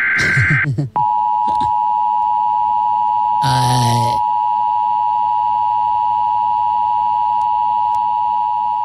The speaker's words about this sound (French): Si je te fais jouer ça Alerte météo. Alerte météo.